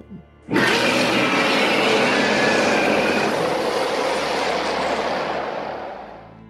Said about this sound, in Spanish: Luego de ese grito, van a escuchar otro grito más desde arriba.